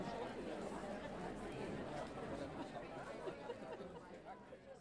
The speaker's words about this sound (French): Lorsque le visage se figea sur l'écran, il y eut de nombreux chuchotements dans la salle, et le professeur Clam attendit qu'il se calme avant de reprendre son discours.